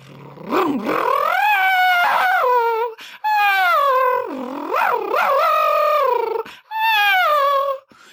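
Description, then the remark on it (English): A Formula One V10 engine screams at high revs, its loud whining pitch climbing and dropping repeatedly, with brief cuts and sudden pitch drops at each gear change. No one speaks. “Oh, oh got gear changes down there.”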